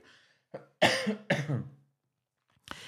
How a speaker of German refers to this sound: So, noch eine Runde husten.